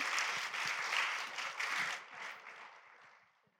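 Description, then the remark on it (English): A crowd claps together in a dense burst of applause that holds steady for about two seconds, then gradually thins out and fades away. “Yeah, give him a clap.”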